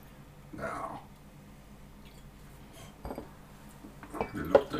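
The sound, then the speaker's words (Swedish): A drink is poured into a glass, with soft clinks of glassware and a brief trickling swell near the end, under faint murmuring voices. “Han är lite bökig att hälla.”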